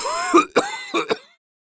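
An old man, who says he has had corona for the past fifteen days, coughs four times in two quick pairs, raspy and throaty, fairly loud, with no talking around the coughs.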